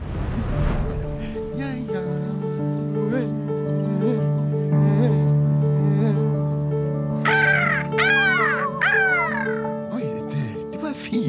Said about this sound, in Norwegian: fine, fine fugler. Hei, hei, fugler! Sju fugler! Sju!